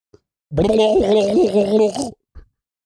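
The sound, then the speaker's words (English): A man's voice imitates a turkey gobble, the way turkeys in Stockton sound, a loud warbling, throaty burst lasting about a second and a half with rapid wobbling pitch, followed by a brief soft breath. “That's what a turkey sounds like when it gets a blue moon shoved directly up its keister.”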